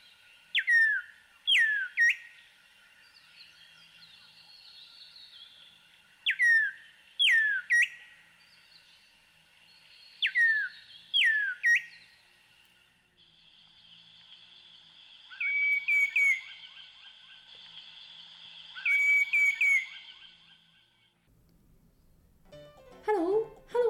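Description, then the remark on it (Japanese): A green (Diederik) cuckoo in Uganda gives clear, whistled calls that do not sound like 'cuckoo', repeating in short bursts of two or three sliding notes, followed by a longer, wavering whistled phrase. The calls are loud against a quiet background. “今日ご紹介するウガンダの鳥は緑格好ですこの鳥はカッコと名前がついてますがカッコウカッとは鳴かないんですね鳥のガイドジョニーによるとハローと上手とてるように聞こえると言うんですけれども、まあ、どんなんでしょうね”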